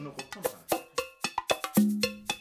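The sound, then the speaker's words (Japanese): A quick, irregular cascade of bright metallic chimes from a wind chime, about a dozen tinkling strikes at different pitches with ringing tones that overlap and linger, fairly clear, with no voices. “そうだったウィンドチャイムがまだ出てきてないぞ”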